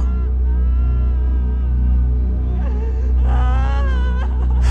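A woman cries and wails in drawn-out, quavering moans that rise and swell in pitch, loud, over a low steady hum, with no other voices.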